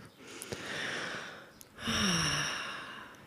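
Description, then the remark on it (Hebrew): A long, slow inhale through the nose is followed by a deep, audible exhale that ends in a soft voiced sigh, a calming breath taken to help settle excitement. Clear, with no talking. “אז רגע, ניקח אולי נשימה כדי ככה לעזור להתרגשות uh, להתיישב.”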